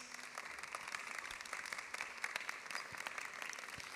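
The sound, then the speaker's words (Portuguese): An audience applauds steadily as guests are called to the front, a dense wash of many hands clapping at an even, moderate level with no voices rising above it. “Venham aqui à frente, uma salva de palmas.”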